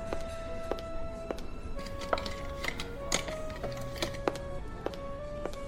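Scissors snip through the packaging of a delivered box in a series of sharp, crisp clicks, about a dozen at an uneven pace, with a steady tonal hum underneath and no one speaking.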